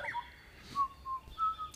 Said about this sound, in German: Gut, äh, ich höre da so ein Pfeifen. Ich, ich laufe mal wieder zu der Fähre.